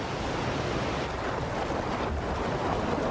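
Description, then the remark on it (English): A steady, dense roar of rushing water from a river waterfall that blocks the path of migrating salmon, loud, pouring without pause, with no voices present. “The falls are blocking the salmon's path.”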